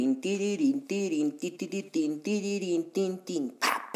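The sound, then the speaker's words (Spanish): A small dog barks in rapid, high-pitched yaps, fairly loud, the bursts running together with whiny tones for several seconds before a brief noisy rustle at the end. “A ver, espérenme que un perrito está chingue tin, chingue.”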